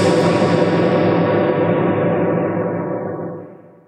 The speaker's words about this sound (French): Euh, non, c'est pas de l'écho, c'est de la réverbération. La par Exemple, par exemple, ça c'est de la réverbération. Voilà, c'est la persistance d'un son dans un lieu et qui décroît avec le temps.